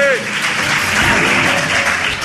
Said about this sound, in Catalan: Aquí demano també un aplaudiment, eh?